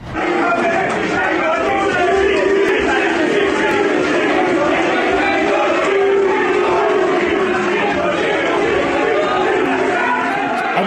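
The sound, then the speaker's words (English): A crowd of MCC members at Lord's booing players as they walk through the halls, a loud, sustained wall of low jeering voices that rises and swells without a break for about eleven seconds. “The MCC members get the privilege of being near the players, yet they booed them as they walk through.”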